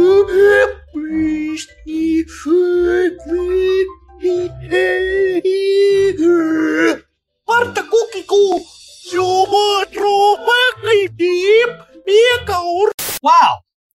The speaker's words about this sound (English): Uh, Bartok. Bartok. so what you just saw was Bartok. Uh, and what you just heard was not voices from the depths of hell, but rather what an algorithm apparently thinks kids' cartoons sound like.